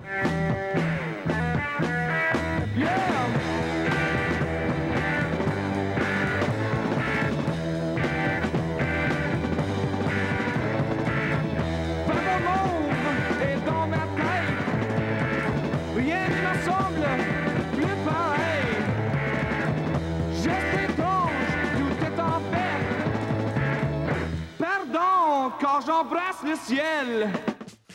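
A French-language psychedelic rock cover from 1969 plays loud and steady: a dense, driving band with a prominent sung vocal, shifting into a sparser, warbling guitar passage for the last few seconds.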